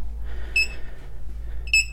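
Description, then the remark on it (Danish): A hidden-microphone detector, a device resembling a walkie-talkie with two antennas, gives two short, high-pitched electronic beeps about a second apart, bright and ringing, over a steady low hum with no talking. The sound indicates that no microphones are present. “Og det her, den her lyd, det betyder, at der ikke er nogen mikrofoner.”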